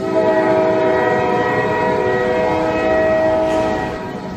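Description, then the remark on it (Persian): A train whistle blows in a long, steady, loud blast with layered tonal harmonics, sustained for several seconds before tapering slightly at the end, with no talking. “اپیزود سوم آخرین سوت قطار”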